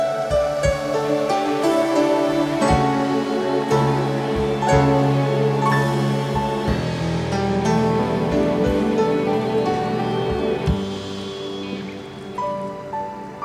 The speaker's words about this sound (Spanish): Pues dale un fuerte aplauso al Rey.